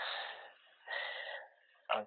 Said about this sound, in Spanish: ¿Quién está respirando?